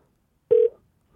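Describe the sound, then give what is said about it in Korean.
A single short electronic telephone tone sounds once, a steady mid-pitched beep lasting about a fifth of a second, with no talking around it, as the Park Myung-soo radio show places a call to a listener. “8566님 전화 걸어주세요.”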